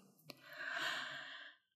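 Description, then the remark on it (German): A single long, audible exhale, breathy and sigh-like, swelling and then fading out over about a second with no speech. “Apropos Atmen.”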